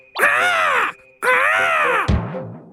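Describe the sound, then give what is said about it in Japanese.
Two loud, drawn-out crow caws, each about two-thirds of a second with a short pause between, followed by a brief, lower, rougher vocal sound. “こんにちはカラスさん安全指導員をちゃんとやっているようですね”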